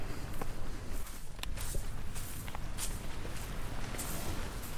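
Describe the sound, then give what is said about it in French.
Footsteps walking through fine sand on a quiet natural beach, about half a dozen soft, uneven crunches, set against a steady wash of waves in the background. “Juste le bruit des vagues, le bruit des pieds qui vont dans le sable fin, le bonheur.”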